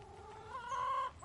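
A hen clucks, its call swelling into a drawn-out, nasal note before breaking off, with faint farmyard background and no one speaking.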